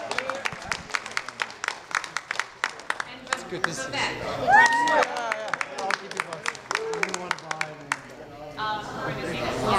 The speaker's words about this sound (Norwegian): Og på slutten av denne debatten så hadde de en eh, liten avstemning, hvor de målte ut ifra jubelen fra publikum eh, hvem som eh, vant debatten.